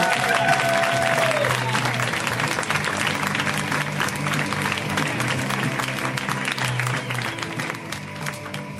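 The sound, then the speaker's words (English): A large audience bursts into sustained applause for comedian Jackie Kashian as she is brought to the stage, dense overlapping clapping and some cheering for the full stretch, loud and steady with a brief whistle near the start. “So let's hear it right now, ladies and gentlemen, for Miss Jackie Kashian.”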